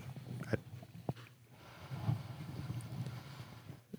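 Muffled handling noise: low rumbling scrapes and thumps with a few sharp clicks as a loose microphone is spun and knocked in its mount. No one speaks.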